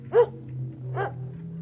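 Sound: dog howling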